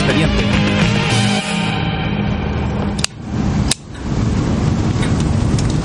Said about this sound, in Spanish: Su entrevistador pulsa una y otra vez un bolígrafo mientras lee frente a una chimenea encendida.